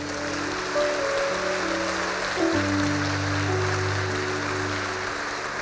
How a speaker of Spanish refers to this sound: Más fuerte el aplauso para ellos.